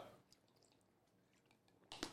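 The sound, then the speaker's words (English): Someone takes a first sip of water during a recording: faint wet mouth clicks, then a brief louder slurp and swallow near the end. No one speaks. “That's my first sip of water.”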